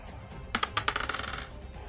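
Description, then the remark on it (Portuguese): A twenty-sided die clatters across a hard surface: several sharp clicks at first, then a quick run of smaller, rapid ticks as it tumbles and settles. No one speaks. “Um D20 mais um”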